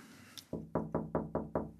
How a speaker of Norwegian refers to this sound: Nei, når folk banker på til meg, så ser jeg jo de kommer ut forbi, og så vinker jeg de inn. så så det må ned litt i fred og drøse. De unge vet at de kan banke på vinduet